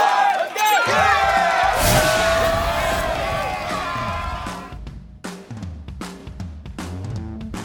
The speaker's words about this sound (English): With that being said, let's go ahead and hit the buzzer. It's the final buzzer. The last moments of the show.